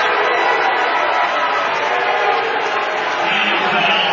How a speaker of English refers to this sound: I love the crowd reaction. Raps knocked Finley to the floor, but there shouldn't be a foul called on it.